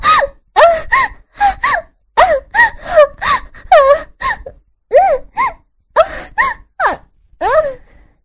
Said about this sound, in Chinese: 我撇撇嘴说着，却又忍受不住他的逗弄，发出一阵阵的叫声与喘息。